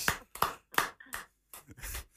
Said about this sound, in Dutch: Ah, gaaf, applaus.